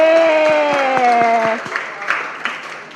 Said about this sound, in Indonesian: Kita kasih tepuk tangan dulu buat teman-teman semuanya. Terima kasih sudah hadir. Dan terlebih lagi, kita tepuk tangan juga dong buat Tuhan Yesus.